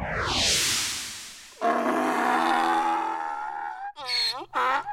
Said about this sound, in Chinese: 乖乖，你认得出来吗？这个竟然是驴子的叫声呢！维多叔叔以前也没有听过，哎，好特别哦。